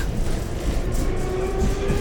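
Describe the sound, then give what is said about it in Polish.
Steady low rumble from inside a moving tram, a continuous drone with a faint high whine running through it and no voices. “Ja tu sobie dodałem jakiś dźwięk jak sobie w tramwaju.”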